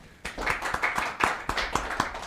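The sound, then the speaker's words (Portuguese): Hands clap in a steady, even rhythm, about four sharp claps per second, moderately loud, with no talking over them. “Emocionante, palmas, inclusive.”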